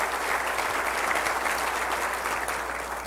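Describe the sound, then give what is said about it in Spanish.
An audience claps for Jesus Christ after a prayer, steadily for about three seconds, a dense, even wash of many hands with a slight swell and gradual easing toward the end, with no voices heard over it. “Vamos a darle un aplauso al Rey de Reyes y Señor de Señores, Jesucristo.”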